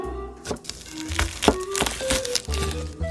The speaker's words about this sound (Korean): 자, 여러분 지금부터 이거 반으로 쪼개서요. 채를 탁탁 썰어봐요. 그냥 탁탁탁탁 썰면 돼요.